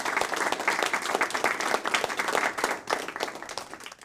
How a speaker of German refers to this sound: Nicht nur der Pharao war von der Deutung seiner Träume und dem Rat Josefs beeindruckt, auch die Höflinge spenden Beifall.